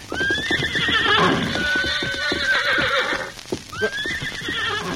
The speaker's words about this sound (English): look, there's a horse. Yeah, and coming this way. I don't see anyone in the saddle. Why, there isn't. Somehow that horse has lost its rider.